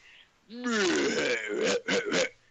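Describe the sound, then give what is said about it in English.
A loud, deep animal grunt, heard while hunting, swells into a drawn-out guttural groan, then breaks into a few short choppy bursts. It stands alone, with no talking. “That same exact grunt I heard the previous Sunday.”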